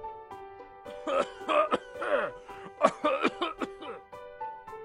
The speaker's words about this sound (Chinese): 咦，哪里传来的咳嗽声？